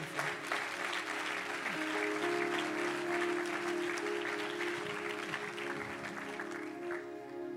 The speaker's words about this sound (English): Wonderful performance today by everybody. Can we give a round of applause for everybody that put all that together?